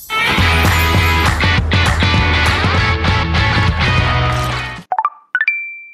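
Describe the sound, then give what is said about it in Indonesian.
A dense musical bed plays loudly, then cuts off, and three quick bright chime tones ring out in a short rising sequence: a Tinder dating app match notification alert on a phone. “Aduh Nam, itu bunyi apa sih? Tangting-tangting? Ya, ketahuan deh lagi match.”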